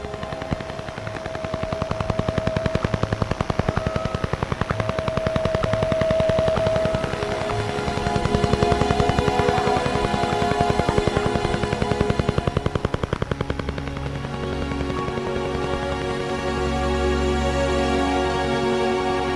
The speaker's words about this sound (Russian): Благодаря усилиям тысяч лучших инженеров страны, 5 лет кропотливой работы по наладке и запуску сложнейшего инженерного модуля увенчались успехом. И в 1980 году весь мир впервые услышал русского дятла